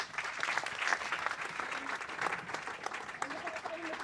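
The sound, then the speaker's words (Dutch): Steady audience applause fills the whole stretch, a dense, even patter of many hands clapping at once, fairly loud, with faint traces of voices mixed into the noise toward the end, welcoming a guest, the project coordinator of the foundation Made Up North. “Welkom, ook een applaus”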